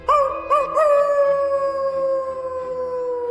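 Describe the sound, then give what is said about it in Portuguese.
A wolf howls in one long, sustained tone that starts with a few short rising yelps and then holds a steady, slowly falling pitch. The howl is loud and clear, with no voices. “Isso foi um lobo?”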